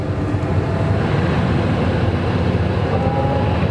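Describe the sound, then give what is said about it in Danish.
A tractor driving itself by GPS drones steadily, a deep, even diesel rumble with a rattling low-end texture that holds constant throughout, with no voices. “Ja, men i en traktor, der skal man næsten trykker på knappen, så kører den selv.”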